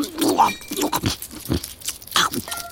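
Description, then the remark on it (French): Wet crunching and munching as a hedgehog, standing entirely inside a dog's bowl, eats the dog's food, with irregular bites and snuffly chewing over about three seconds. “Mais enfin, qu'est-ce que tu fais tout entier dans la gamelle du chien Tu prends un bain”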